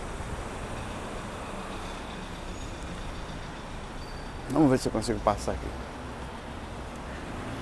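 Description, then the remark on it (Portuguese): Steady street traffic rumbles and hisses continuously as vehicles pass, while a man trying to cross the street by a bike lane speaks briefly partway through. “Eu vou ver se eu consigo atravessar aqui, apesar do trânsito.”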